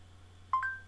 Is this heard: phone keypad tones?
yes